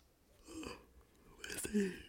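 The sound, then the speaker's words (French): A single yawn: a long breathy intake of air swelling into a brief, low voiced groan at the end, fairly quiet with no talking. “ça y est, je baille.”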